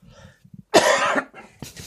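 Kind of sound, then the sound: human body sound, dry cough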